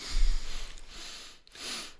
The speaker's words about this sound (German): Wenn man dann, dann nach dem Getrinken ein bisschen durch die Nasen schnauft